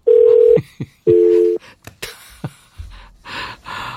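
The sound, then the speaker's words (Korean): A telephone tone sounds twice as a phone call comes in at an office, each a steady half-second hum with a short gap between, followed by faint breathy sounds and rustling with no clear speech. “어, 전화.”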